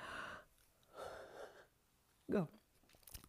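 A person yawns: two long, breathy drawn-in breaths followed by a short voiced groan that slides downward in pitch. No talking.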